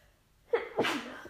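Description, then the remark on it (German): A single sneeze from a person with a slight cold: a quick intake of breath followed by a loud, bursting expulsion, with no talking. “Oh, tut mir leid, ich bin echt ein bisschen erkältet.”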